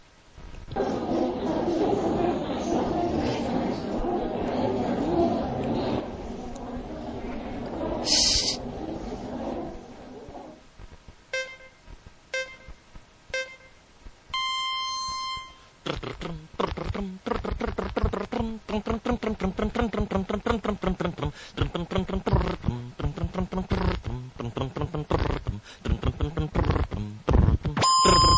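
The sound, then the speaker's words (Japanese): Two jingles, for the 17th and 18th installments, play back to back with a possible short gap of about two seconds between them: a loud rumbling, roaring stretch, then a few bright electronic beeps, followed by a busy melodic section with voice-like tones, all at a steady, fairly loud level. “じゃあ17回と うん 18回のジングルを続けて流すので、 うん まあちょっと多少17回と18回のジングルの間に時間はあるかもしれないけど、2秒ぐらい、あの、クリックする時間があるんで、 うん じゃあ引き続き17回、18回連続で流します。”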